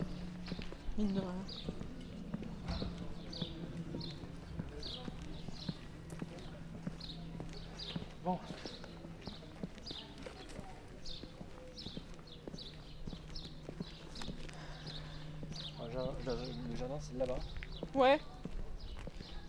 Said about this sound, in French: Là, c'est le manège. Il y a des chevaux euh, au manège, comme son nom l'indique.